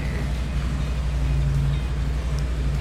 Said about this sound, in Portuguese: É uma moto passando. 883 aí.